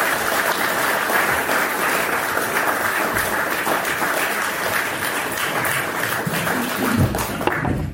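A crowd applauds steadily, dense overlapping claps forming a loud, continuous wash of sound that holds for the whole stretch and tapers slightly at the very end.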